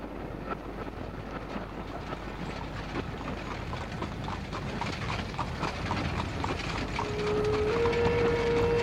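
Horse hooves clip-clop in a steady, quick rhythm as a horse-drawn carriage rumbles along, being hurried to catch a train, over a constant low noise; a thin whistle-like tone rises near the end. No one speaks.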